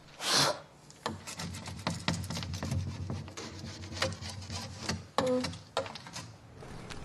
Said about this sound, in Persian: این صدای تراشیدنه دارم رنگای روی شیشه رو میتراشم